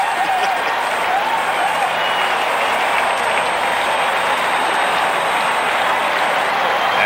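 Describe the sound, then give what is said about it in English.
Steady, dense applause from a huge crowd of some 50,000 at a baseball game fills the whole stretch. It is a loud, continuous roar of clapping with a faint whistle or two rising above it and no pauses. “and some 50,000 reacting.”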